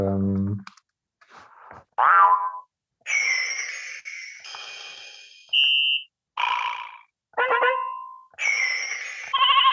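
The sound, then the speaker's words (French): A rapid string of short electronic sound effects from a toy's rhythm button, which adds sounds matching its songs: a low buzz, a springy boing, then assorted bright beeps and warbling tones, each burst separated by brief silences, loud. “Et pendant la chanson, quand on appuie sur ce bouton, ça fait le son qui correspond à la chanson.”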